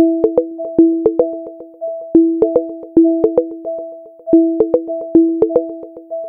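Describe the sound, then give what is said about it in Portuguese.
A HomePod smart speaker's alarm plays a repeating electronic chime pattern, bright tonal notes with sharp plucked onsets cycling steadily about every two seconds, clear with no talking. “esse é o som do despertador do HomePod.”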